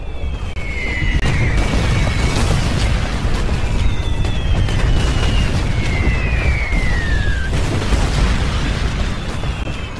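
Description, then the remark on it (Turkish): Artillery shells fall on the 22nd Division marching in close formation on a sunny morning at 9 o'clock, bursting in a continuous heavy barrage, a dense roaring rumble, while several high descending whistles streak overhead between the blasts. No one speaks. “Görünürde henüz bir Rus birliği olmamasına rağmen sıkışık nizamda yürüyen 22. tümenin üstüne top mermileri yağmaya başlıyor ve askerler çil yavrusu gibi dağılıyor.”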